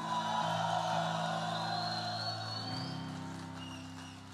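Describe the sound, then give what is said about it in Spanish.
A large standing crowd roars and shouts a battle cry together in a loud, sustained burst of voices, with a steady sustained tone underneath, before tapering slightly. “Ponte de pie, dale un grito de guerra al rey.”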